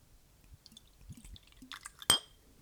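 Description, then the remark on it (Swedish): Rum glugs into a glass in a few soft, uneven burbles, ending with a sharp, bright clink of glass. No one speaks. “Hör, hör liksom hur när jag ska fylla på lite här nu.”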